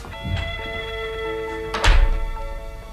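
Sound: door being shut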